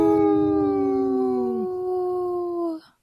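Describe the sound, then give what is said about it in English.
A person imitates a wolf howl in a radio sponsor message for Howling for Wolves on Native Roots Radio, a long steady wail held for almost three seconds, with a second lower howling voice that slides down and drops out partway through. No talking. “brought to you by Howling for Wolves, protecting wolves for future generation.”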